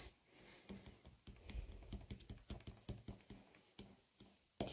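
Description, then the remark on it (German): A white pen dabs dots all over a paper card to make a snowfall effect, in a quick, uneven series of light, crisp clicks, steady throughout, with no voices. “Und als nächstes nehme ich jetzt einen weißen Stift. Und jetzt mache ich einfach überall ja, quasi Schneegestöber hin.”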